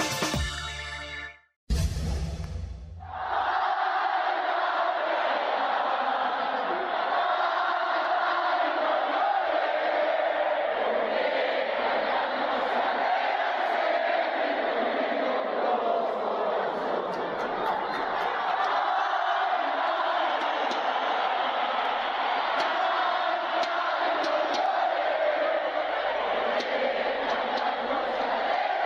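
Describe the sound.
A huge stadium crowd of Mexican fans sings "Cielito Lindo" together in a loud, sustained roar of massed voices, the chant swelling steadily for nearly half a minute after a brief burst of noise at the start.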